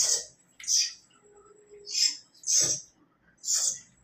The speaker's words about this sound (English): So I would just uh, want to show you a video of how the bird looks like, just to give you an idea of how big its mouth and how it is crying for food.